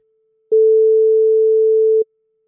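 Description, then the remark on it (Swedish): A single outgoing telephone ringing tone while calling an Instagram follower: one steady, mid-pitched electronic beep lasting about a second and a half, clear, with silence before and after and no voices. “vi tänkte faktiskt att vi skulle ringa upp en av våra Instagramföljare mm.”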